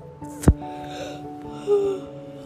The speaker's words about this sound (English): I'm sorry, I'm yawning.